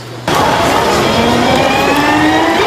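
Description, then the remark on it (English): Electric racing scooters developed by the Industrial Technology Research Institute whizz past on a racetrack in Taoyuan, Taiwan, a loud, steady whine with rising tonal pitch lasting a few seconds, nearly constant intensity and no voices heard. “At this racetrack in Taoyuan, the electric scooters whizzing down the track were developed by the Industrial Technology Research Institute.”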